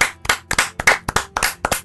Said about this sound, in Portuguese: Quem merece, quem merece palmas? Não, vamos bater palma. É. Bate todo mundo, por favor.